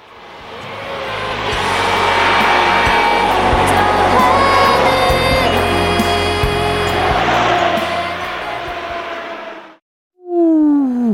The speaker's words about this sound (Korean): 아우토반 달리는 줄 차가 슝 지나갔어요. 노래 소리는 들으셨죠? 순식간에 지나서 못 들으셨나요?